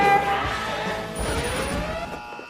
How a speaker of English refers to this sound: And then explosion. like the the music exploded.